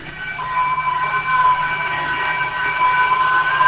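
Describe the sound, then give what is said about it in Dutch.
Several steady high-pitched whistling tones of an amateur radio digital mode sound together over a faint hiss, holding continuously at moderate loudness with a few brief chirps partway through. “Eh, allemaal fluittoontjes.”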